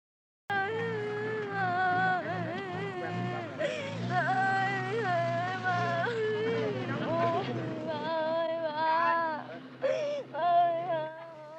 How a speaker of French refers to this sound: Regardez ce documentaire sur la guerre au Vietnam. Sans juxtaposer l'extrait d'un enfant vietnamien qui pleure son père décédé et la déclaration d'un général américain.